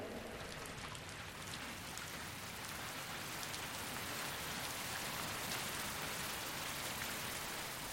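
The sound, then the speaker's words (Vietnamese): Heavy rain pours down steadily, a dense, constant hiss of drops pattering on surfaces, with no letup and no voices. “Mưa bắt đầu rơi nặng hạt, máu chảy ra từ cơ thể người đàn ông trôi theo dòng nước mưa xuống cống.”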